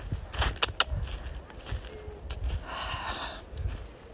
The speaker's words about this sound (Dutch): Hier nou ja, we lopen nu natuurlijk een bos